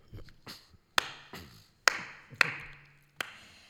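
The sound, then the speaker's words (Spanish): Satan claps his hands slowly and unevenly: a few softer claps, then four sharp, loud, crisp ones spaced about a second apart, with no voices. “Satán aplaude.”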